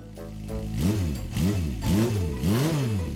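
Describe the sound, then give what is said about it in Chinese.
An electric scooter revs in four quick throttle bursts as an elderly woman twists its handlebar throttle hard, the scooter carrying two riders; its motor whine swoops up and back down in pitch each time, loud and steady with no voices. “阿嬷狠狠地转了几下电动车的把手，可是小班真的感受不到任何加速的效果。”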